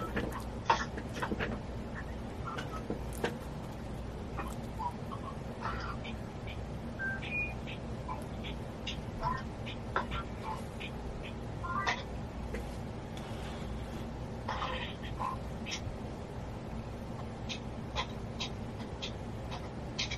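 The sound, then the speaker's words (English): A few short electronic tones, like phone dialing beeps, sound in scattered bursts over a steady low hum, with faint background chatter and some sharp clicks. “I just want to get you on the phone.”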